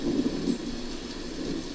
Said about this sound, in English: and the rumble of thunder. So atmospheric, so cinematic.